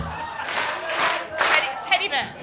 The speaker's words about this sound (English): All right, here we go. Okay, next one, please. Everybody clap. Everybody clap.